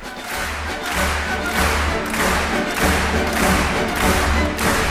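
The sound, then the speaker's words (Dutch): A large concert hall audience claps together in a steady rhythm to music by the Wiener Philharmoniker under Mariss Jansons, the dense wash of hands rising in regular pulses over a deep, thumping beat of music that runs throughout. “Want eigenlijk is het best vreemd dat alle mensen in deze zaal ongeveer tegelijkertijd in de handen klappen.”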